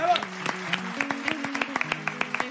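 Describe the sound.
A burst of audience applause, brisk irregular claps running steadily for a couple of seconds, with a voice talking and murmuring underneath.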